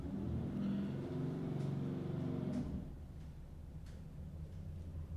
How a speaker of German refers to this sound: Hier fährt gerade so ein dickes Auto vorbei, das hören wir. Das ist richtig schön, hört sich das an, aber das stört unseren Podcast. ist gleich weg.